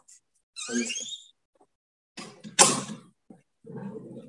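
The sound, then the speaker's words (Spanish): Dogs vocalize excitedly as a door is opened at a house, a few separate bursts of high whining yelps and a sharper bark-like cry, with short silent gaps between them and no talking. “Acá hay un montón de gente en esta casa, pero los perros quieren estar siempre conmigo.”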